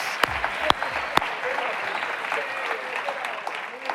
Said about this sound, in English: Embassy City, can we give all the weird lamps a big round of applause?